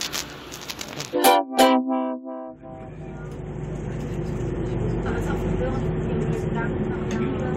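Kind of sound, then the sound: vehicle, boarding a city bus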